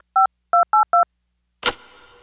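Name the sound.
telephone keypad dialing tones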